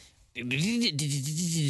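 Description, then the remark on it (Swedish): A voice mimics the thin, twangy plinking of an unplugged electric guitar taken down from a wall, a short sung run of bright pitched notes rising then settling, fairly loud. “jag rycker ju en gura som hängde på väggen och så börjar jag försöka plinka så här okopplat liksom bara.”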